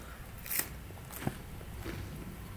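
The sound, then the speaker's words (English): Someone bites and chews crunchy bread, with a few sharp, crackly crunches spaced out over a quiet background and no talking. “It's crunchy bread, so it's like crack, crack, crack, and then”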